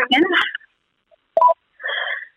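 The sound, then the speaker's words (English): Short electronic mobile phone tones sound in a few bursts: a brief chirpy blip, then a longer buzzy tone, with brief silences between. Talking is heard at the very start. “sorry, that's my phone”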